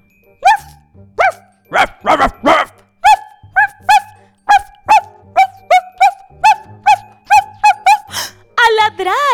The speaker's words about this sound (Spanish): Todos los perros ladran. Pero imagínense que dentro de su casa tengan 3.333 perros ladrando al mismo tiempo. Amigos, esto era un escándalo, era terrible. Nadie pudo dormir en el palacio del sultán esa noche.